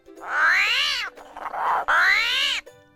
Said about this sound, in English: special thanks to Joe Furman for allowing us to use the audio of the screaming armadillo